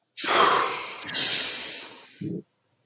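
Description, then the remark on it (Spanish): A long, loud, breathy exhale during a guided breathing exercise, after a deep breath is held, rushes out for about two seconds, broad and hissy, slowly fading before a brief soft puff at the end. No one speaks. “Sostén, sostén, exhala.”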